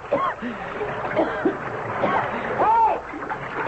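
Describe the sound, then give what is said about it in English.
Water splashes and churns steadily as a man, dropped over the side of a boat, thrashes about in the Nile river, with several short shouted exclamations rising over the noise. “I'm in the river.”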